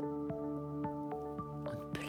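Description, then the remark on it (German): Water drips steadily, about six clear plinking drops roughly a third of a second apart, distinct over a soft, sustained musical tone underneath. “plötzlich hörst du, wie ein kleiner Tropfen mit dir spricht.”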